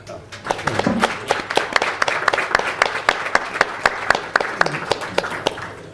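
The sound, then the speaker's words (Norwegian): A live audience breaks into applause, many hands clapping in a dense, steady patter that stays fairly loud for several seconds, with faint voices murmuring underneath. “95 år, jeg tror det fortjener en applaus.”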